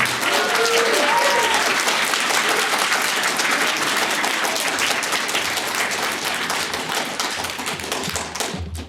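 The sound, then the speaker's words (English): Sustained audience applause at a Center for Political Innovation event as Jackson Hinkle is introduced, a dense, even wash of many hands clapping at steady loudness, with a few brief tonal whistles or cheers early on, tapering slightly at the end. “Big round of applause to Caleb Maupin and the Center for Political Innovation for putting this on.”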